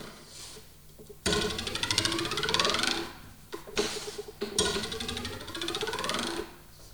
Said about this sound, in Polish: Linijkofon, tradycyjnie linijak. Dźwięk generowany jest poprzez rozwibrowanie linijki opartej węższą stroną o na przykład stół i przesuwanie jej w górę i w dół.